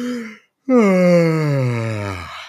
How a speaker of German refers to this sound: Schön entspannt, weil dieses lange Ausatmen, das steuert einfach den Parasympathikus an. Ne? Mhm. Und das ist ja auch im Prinzip der Effekt des Gähnens. Wenn wir gähnen, machen wir genau das.